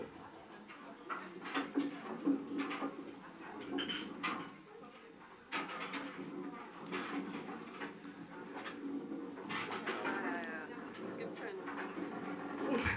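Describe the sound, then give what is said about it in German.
Chairs scrape and clatter across a hard floor as several are shoved aside at once, along with bags, to clear space in the middle, a busy jumble of knocks and drags with murmured voices throughout. “Und dazu möchte ich euch bitten, dass ihr eure Taschen an die Seite räumt und die Stühle an die Seite rückt.”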